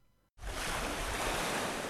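A brief hush, then a loud, steady rush of swirling, churning water and breaking waves at a pier starts abruptly and continues without letup, with no voices.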